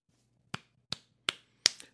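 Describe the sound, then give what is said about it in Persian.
A slow, measured hand clap, four sharp smacks about a third of a second apart, the last followed by a quick softer echo clap, over a faint low hum with no voices. “پسر اهریمن که در طول سخرانی پدرش دست به کمر ایستاده بود با تمام شدن حرفای پدر شروع به کف زدن کرد”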